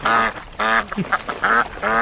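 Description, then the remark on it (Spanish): A cartoon duck voice quacks loudly: four buzzy, nasal squawks in a steady rhythm, with short garbled sputters between them. The duck sound is made by a human voice. “este tipo de risa indica un trastorno patológico, no confundir con el pato Donald”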